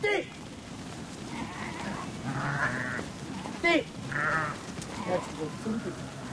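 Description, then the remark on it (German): A flock of sheep, herded by a shepherd and a dog, bleating repeatedly, several overlapping calls rising and falling over a steady outdoor rustle, with brief harsher cries standing out. “Der Hund muss die Herde selbstständig zusammenhalten und aufpassen, dass kein Schaf zurückbleibt.”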